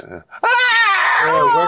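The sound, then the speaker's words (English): After a brief mumble, a person lets out a loud, sustained, high-pitched screech with their voice, an imitation of screeching that wavers in pitch for over a second. “the ah! autistic screeching sounds like this.”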